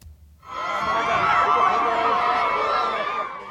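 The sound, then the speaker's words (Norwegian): After a brief quiet start, a large crowd at the Tindouf refugee camp in the Algerian desert erupts into loud, sustained cheering as a car convoy bringing a UN special envoy rolls past in winter, with many high, wavering voices blending together and continuing without pause. “Midt inne i ørkenen i Algerie litt tidligere i vinter rulla ei bilkolonne forbi folkemengda som jubla.”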